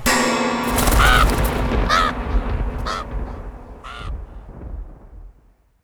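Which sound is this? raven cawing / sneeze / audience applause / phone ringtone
raven cawing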